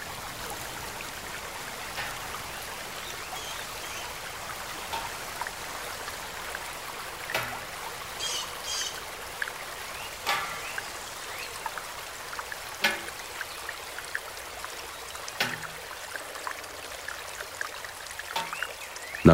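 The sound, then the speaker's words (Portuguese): A bamboo shishi-odoshi tube by the water pours water into a pond with a steady trickling flow, knocking sharply against a stone floor every few seconds in an even rhythm, fairly clear, with no voices. “Um tubo de bambu despeja a água na lagoa e bate ritmadamente contra um chão de pedra.”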